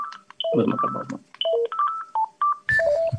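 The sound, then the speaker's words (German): A telephone rings with an electronic melody, a quick run of short tonal beeps jumping between pitches, fairly loud, with some low rumbling handling noise underneath. “Boah, jetzt klingt das Telefon.”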